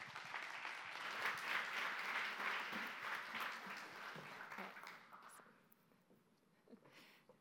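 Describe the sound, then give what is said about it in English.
An audience breaks into dense, sustained applause to welcome a speaker, staying loud for about five seconds before tapering off, with a few scattered claps and faint voices lingering at the end. “Let's make some noise and welcome Courtney Lustig.”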